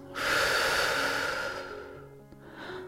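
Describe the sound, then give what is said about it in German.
A long, steady breath blown out through the mouth, breathy, easing off after about a second and a half, with faint soft background tones underneath. “Als allererstes atmen wir tief durch die Nase ein und den Mund wieder aus.”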